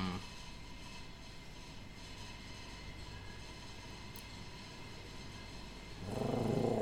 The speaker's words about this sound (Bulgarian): А. Вау, за първ път е чум да дига чак толкова шум. Да не я пускам само с слушалки. Имаш нещо тракащо в пералнята? Имам, може не, не, нещо, по-скоро някаква чиния стои отгоре или нещо такова.